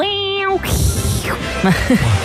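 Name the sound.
cat meowing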